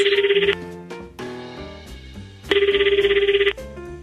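A telephone rings twice in rapid trilling bursts, each about a second long, with a brief pause between them, loud over soft background music.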